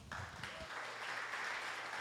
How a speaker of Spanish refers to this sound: Denle un aplauso al Señor.